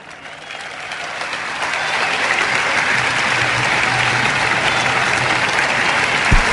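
A crowd at a Catalan independence rally breaks into applause for a speech, swelling over the first couple of seconds, then holding as a steady, dense clapping from many hands, with no voices rising above it.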